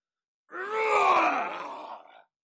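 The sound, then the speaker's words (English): A single deep, voiced bellowing roar of rage, loud, swelling quickly and holding for nearly two seconds before trailing off, with no other sounds around it. “as you hear this bellowing rage come from Crack's skull”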